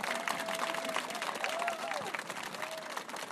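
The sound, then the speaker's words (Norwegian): Steady, dense applause from a crowd at an event, applauding the women who organized it; a continuous wash of clapping at even loudness, with a few faint voices and whistle-like calls rising over it. “Disse damene bør få en skikkelig applaus.”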